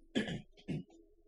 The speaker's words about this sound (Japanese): ちょっとあの、咳払い失礼します。